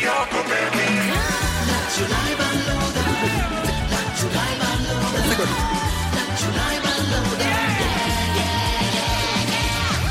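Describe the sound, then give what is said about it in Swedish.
A loud, busy radio jingle fills the whole stretch, with punchy music and a group of voices shouting "yeah, yeah, yeah" over a driving beat. “Ja, det finns anledning att skrika yeah, yeah, yeah.”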